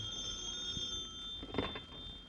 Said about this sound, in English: As we return to our story, Shorty has been released by the police, and in the Bromley home, the phone rings.